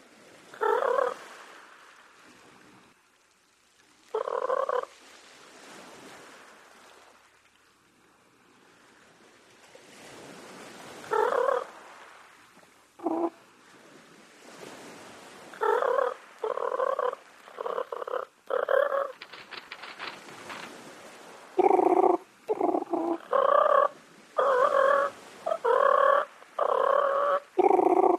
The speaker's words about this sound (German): Es sind die Lautäußerungen, die Tympanuchus Cupido Cupido beim Streit mit Artgenossen von sich gab und die der englische Biologe Palmer detailliert beschreibt. Hören Sie nun.